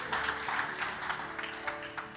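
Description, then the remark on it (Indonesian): An audience claps during a sermon in a steady burst of applause, a dense crackle of many hands that holds at an even, moderate level with a few sharper claps standing out, no voices heard. “Mari berikan tepuk tangan.”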